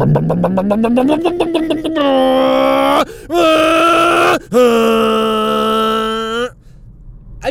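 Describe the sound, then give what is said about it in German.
A voice imitates a motorcycle pulling away from a traffic light at 23:12 at night: a buzzing engine growl rising in pitch, then two more long revving bursts broken by brief gaps, loud and strained. “Was, was geht den Leuten durch den Schädel auf ihren scheiß Motorrädern?”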